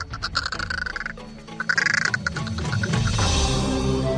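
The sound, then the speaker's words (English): A lone crow perched in a tree murmurs softly to itself, a steady run of low clucks, gurgles and quiet raspy notes with no one talking. “if you're very lucky, you may be walking along and you'll hear from a tree just over your head a very soft, fluid sequence of just you'll look up and you'll see a bird, a crow, all by itself in the tree, just talking away quietly to itself.”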